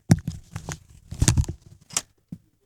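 Someone blows their nose in a few short, noisy bursts, with rustling that sounds like a tissue being handled between blows, ending in a brief final snort.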